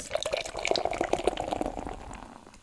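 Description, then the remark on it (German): Beer from a can of Quake IPA by the Gutsbrüder brewery of Koblenz pours into a glass, a steady gurgling, splashing stream that fades out toward the end, with no talking. “Ich schütze mal hier in mein Glas.”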